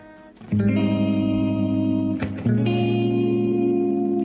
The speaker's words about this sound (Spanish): Y me da mucha alegría este, cuando más o menos pasen 35 minutos de las 7 de la tarde, van a escuchar este separador que da inicio a una nueva sección aquí en Mujeres de Acá.